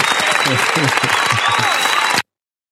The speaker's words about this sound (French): Et c'est quelque part, on peut mm. t'applaudir pour ça